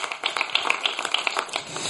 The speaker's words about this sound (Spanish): Dale otro aplauso al Señor. Aleluya.